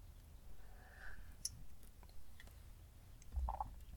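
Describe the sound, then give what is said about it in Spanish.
Someone takes a quiet sip of coffee, with soft slurping and swallowing noises, faint clicks of the lips and cup, and no talking. “Pausa para trago de café.”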